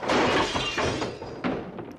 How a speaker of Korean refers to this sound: 그래서 옆에 있던 스팀 청소기를 넘어뜨렸죠.